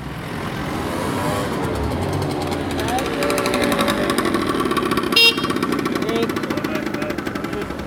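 Heavy road traffic of cars and trucks on the main road in Rosarno, Italy, after dark, rumbles continuously, with engines roaring past and a rattling, pulsing engine note rising midway, loud and unbroken throughout.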